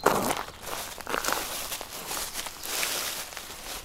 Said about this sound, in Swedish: Det är ett tydligt prassel. Där gick jag in i naturen. Övergången där var tydlig.